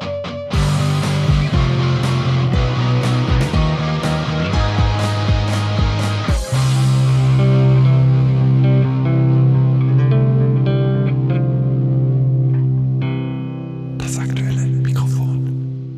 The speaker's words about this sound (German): ich möchte ganz kurz, äh, weil es da sehr aktuell wird, den, den, den entsprechenden Bumper einspielen.